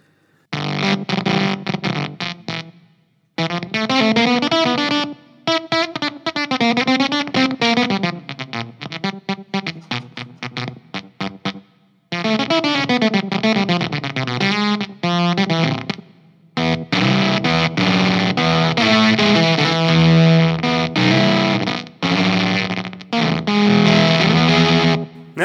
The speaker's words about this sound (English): Here's volume halfway on the strat. Still very gainy. Yeah. But you can hear how the gate is chopping off.